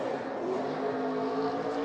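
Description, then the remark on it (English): A race car engine roars at sustained high revs during a burnout, doing a donut in front of its team: a steady, loud mechanical drone that holds without pause for the whole moment, with no voices. “love burnouts, man. Burnouts are just cool.”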